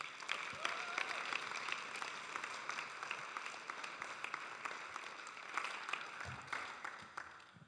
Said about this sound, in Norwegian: Dere kan gi henne en applaus på vei opp hit.